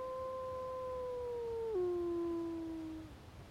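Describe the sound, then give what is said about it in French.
A single long, mournful howl from an old wolf, its death song sung with its last strength before collapsing, holds a steady tone, then dips lower partway through and slowly trails off, with no voices. “Avec l'aide de Mowgli, il se dressa et, avec ses dernières forces, il lança le chant de la mort avant de s'effondrer.”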